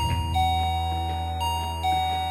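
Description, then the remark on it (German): An electronic doorbell chime plays a short sequence of sustained, ringing tones that shift pitch a few times, fairly loud, over a low steady hum with no one talking. “Es klingelt an der Tür.”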